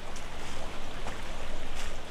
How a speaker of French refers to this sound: Les ruisseaux coulent le long des promenades aménagées.